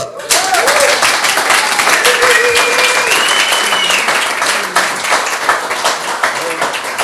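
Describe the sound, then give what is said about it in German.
A crowd bursts into loud, sustained applause welcoming a preacher before his sermon, dense clapping filling the whole stretch with a few cheers and whoops rising over it before it starts to thin slightly toward the end. “Wir freuen uns drauf und einen riesen Applaus für dich.”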